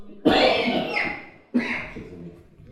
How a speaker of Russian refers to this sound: Тут просто нельзя кашлять типа, около микрофона.